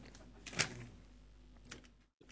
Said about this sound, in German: aber äh, na, bevor wir hier nach dem Mikro greifen, vielleicht erstmal die Türe schließen und freundlich reingrüßen.